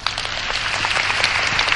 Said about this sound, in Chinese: 呃，我先说一下，不管你们是怎么来的，先给你们今天这么庆幸有机会听到我这样讲， 给你们自己掌声鼓励一下啊！